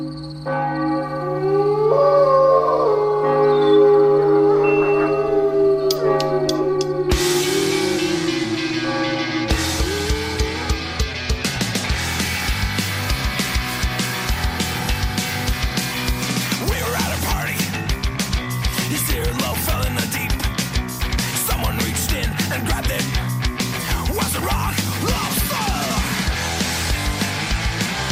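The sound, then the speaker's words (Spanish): Church bells chime for midnight: a few seconds of sustained, ringing tones, then a dense run of repeated loud strikes whose overtones hum on and overlap throughout. “Acaban de sonar las campanadas de medianoche.”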